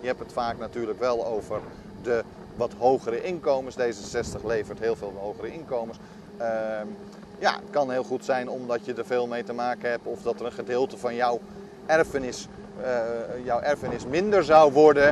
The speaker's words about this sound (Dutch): mijn excuses voor de ruis van het geluid, want de wind is vrij hard